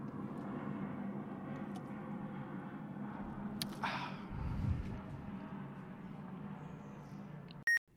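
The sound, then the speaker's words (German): An airplane flies overhead, heard from a balcony, in a steady low droning roar that fills the whole stretch without fading. A short, sharp electronic beep cuts in near the end. “Da kommt ein Flugzeug, das lassen wir eben durch.”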